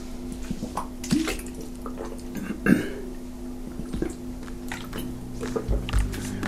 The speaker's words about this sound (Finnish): Se, sitähän suositellaan, että kun puoli tuntia täällä pitäisi jaksaa istua ja keskittyä ja, tai rentoutua, niin aina pitää juoda sitten kuitenkin välillä vettä, koska tässähän haihtuu selvästikin elimistöstä nesteitä myös.